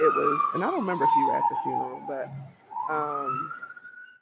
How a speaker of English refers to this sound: Sorry for the sirens. Oh, hold on. Sorry for the sirens. It's like I go to Colombia and I can't get away from the New York sounds.